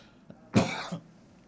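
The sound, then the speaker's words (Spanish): A single harsh cough bursts out, a short throaty blast with a brief rasping tail, preceded by a faint click and followed by quiet. “no, la tos no es insinuosa ni, ni, ni sarcástica, ¿eh?”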